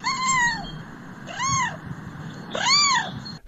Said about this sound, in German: Aber als Anna einmal fragte, wie machen denn Katzen?